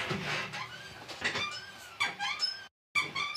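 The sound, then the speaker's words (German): An office chair squeaks repeatedly as it shifts, a run of high, creaky squeals in quick irregular bursts, fairly loud, with a brief silent gap near the end. “es quietscht auf jeden Fall wirklich widerlich bei jeder Bewegung.”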